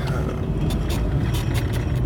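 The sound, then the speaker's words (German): Glass beer bottles rattle and clink in two crates in a car's trunk, one of Pils and one of shandy and alcohol-free beer, in a series of light, irregular bursts over the steady low rumble of the moving car. “Falls ihr ein gewisses Klimpern in der Aufnahme noch hört, aus dem Kofferraum, liegt das daran, dass ich auf meinen Geburtstag heute einen ausgeben muss bei der Arbeit. Und deshalb befinden sich zwei Kästen hinten im Auto.”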